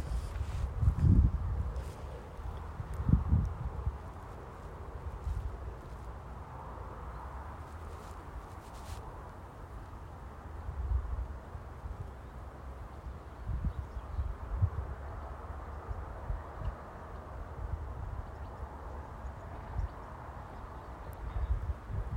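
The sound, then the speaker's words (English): Outdoor wind gusting against the microphone, with deep buffeting rumbles every few seconds over a soft, steady rustle of leaves. No voices, just a quiet garden atmosphere. “I know sometimes it's a bit windy, you can hear me sniffling and things, but that's the reality of it.”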